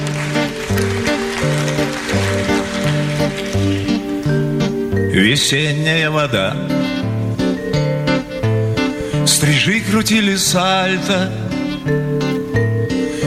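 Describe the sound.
A Russian chanson song plays from a recording, a male voice singing over a steady bass line and accompaniment, loud and continuous throughout.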